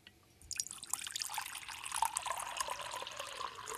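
Cold water pours steadily into a container, starting after a brief quiet moment and continuing as a bright, splashing gush with no voices.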